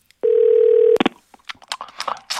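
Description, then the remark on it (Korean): A steady telephone dial tone hums for under a second, then a clatter of handset and button sounds follows with a series of short, uneven key presses and clicks as a call is dialed to a massage business called Baba Baba Massage; no voices present. “결국 저는 그날 밤 뜬눈으로 밤을 지새웠고 다음 날이 되자마자 터질 것 같은 심장을 부여잡고 그 바바 바바 마사지야라는 곳으로 전화를 걸었습니다.”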